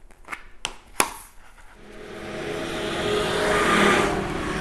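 A few sharp clicks, then a school bus engine rumbles in, its broad roaring noise steadily growing louder before easing slightly at the end. No one speaks.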